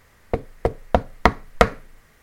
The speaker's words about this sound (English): he investigated the brig back in 2016, and during his investigation, he asked for any spirits to make a sound for him, and soon after, he heard tapping at the window